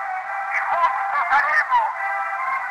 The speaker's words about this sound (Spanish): El sonido de la radio hacía eco entre las paredes de la Casa Blanca.